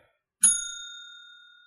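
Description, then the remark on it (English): A single bicycle-style bell, rung as a spoiler warning, dings out clearly with a sharp strike, then its bright metallic tone hangs and slowly fades away, heard alone with no talking. “I'm gonna hit the bell here because like right off the bat, yeah, you can't so, even talk about it.”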